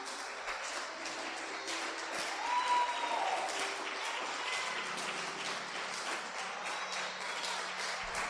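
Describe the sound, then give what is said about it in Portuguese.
An audience applauds the Lord steadily, dense clapping filling the whole stretch at an even, moderately loud level, with a few faint voices and a brief whistle-like tone mixed in. “Pode aplaudir o Senhor.”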